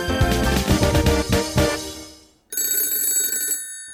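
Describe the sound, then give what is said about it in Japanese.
An old-fashioned telephone bell rings loudly with a rapid metallic clatter, fades away, then sounds again in a second sustained burst, with no voices: a call coming in to Kobayashi at the Akechi Detective Office, from the Magic Doctor. “あくる日、明智探偵事務所の小林くんのところへ電話がかかってきました。”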